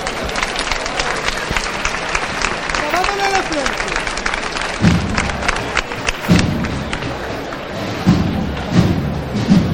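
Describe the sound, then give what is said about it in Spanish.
The Jesús del Perdón procession float is lifted on Calle Bernabé Soriano to a burst of crowd applause, with a few heavy low thuds over the second half and a steady murmur of voices throughout. “Hemos escuchado esa levantada, Jesús del Perdón, que ahora empieza a comer terreno por la calle Bernabé Soriano”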